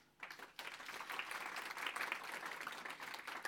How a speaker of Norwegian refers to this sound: Så de kan gjerne få en liten klapp.